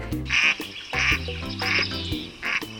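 A duck quacks four times in a steady, evenly spaced rhythm, each quack loud, raspy and nasal, with no other sounds around it.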